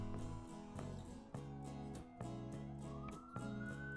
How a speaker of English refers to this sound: Can you hear that car? Siren?